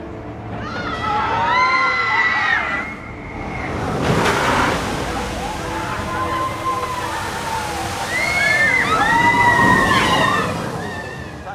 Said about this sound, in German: in dem Moment kommt dann ein kurzer Splashdown. Das heißt, die Wägen haben hinten dran zwei kleine Metallboxen, die an dieser Stelle in das Wasser greifen und hinter dem Wagen eine Fontäne herziehen, die gute 15 Meter hoch ist, würde ich mal sagen.